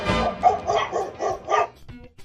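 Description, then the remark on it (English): A small Dachshund barks in a quick run of about six sharp, high-pitched yaps, fairly loud, with no voices around it. “dog of the week is the Dachshund, aka the Sausage Dog.”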